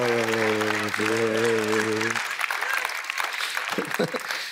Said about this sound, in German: Ja, jetzt könnt ihr klatschen.